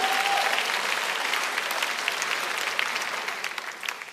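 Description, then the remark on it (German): An audience claps in a steady, dense burst of applause given for the Creator, holding strong for several seconds, then gradually thinning and fading toward the end. “Komm, wir geben unserem Schöpfer mal einen mächtigen Applaus dafür.”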